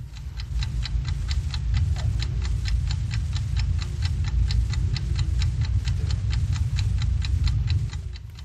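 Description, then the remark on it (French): A steady, rapid mechanical ticking of a watch, evenly spaced crisp clicks running continuously over a low rumbling background hum, clear with no voices. “C'est le tic-tac d'une montre, voyons.”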